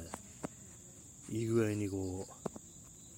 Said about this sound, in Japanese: ちょうどいい感じのね、こういつもあの BGM 流してるんですけど、今日はあの鳥の声、鳥じゃないや、虫の声がね、こう BGM という感じですね。